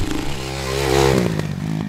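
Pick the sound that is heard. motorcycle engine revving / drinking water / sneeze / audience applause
motorcycle engine revving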